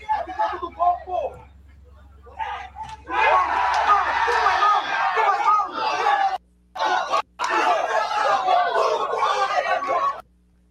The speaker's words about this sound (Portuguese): Torcida nervosa, viu?